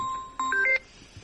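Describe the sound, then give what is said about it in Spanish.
A telephone line sounds during a call attempt: a steady electronic tone, then a quick run of rising, stepped beeps that cuts off into quiet background noise. No one speaks. “¿Está llamando él?”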